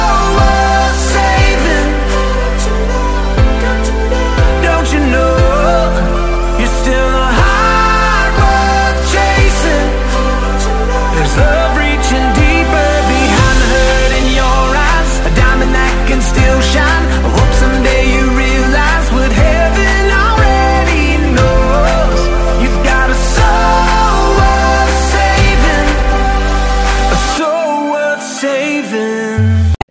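A loud rock song plays continuously, with a driving bass line, steady drums and crashing cymbals filling the mix, before the low end drops out abruptly in the final seconds.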